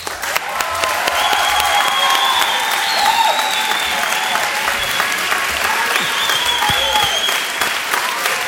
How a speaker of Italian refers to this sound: Tutto questo applauso chiaramente non è per me ma per la persona che stiamo per invitare